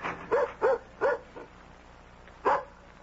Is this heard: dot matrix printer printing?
no